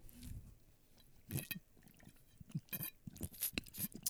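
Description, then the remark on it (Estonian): Quiet mouth sounds of someone taking a sip of water during a short water break and swallowing, with a few wet gulps and small clicks spaced across a few seconds, no talking. “nii, teeme väikse veepausi, teie võtke nii. ka lonks vett.”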